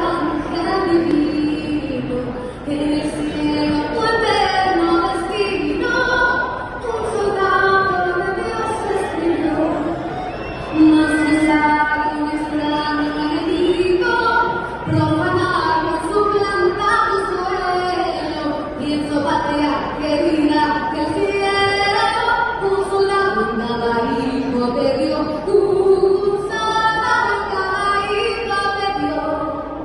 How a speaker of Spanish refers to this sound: Oye, Chamonix, vamos a escuchar cómo María León se equivocó cantando el himno nacional, muchachos. a ver si escuchan el error, ¿eh?